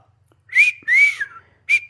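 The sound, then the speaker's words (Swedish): A person whistles a simple beginner's tune in three short breathy notes, the middle one longest and gently sliding in pitch, clear with silence between. “Men grejen är att jag lärde mig först att vissla så här.”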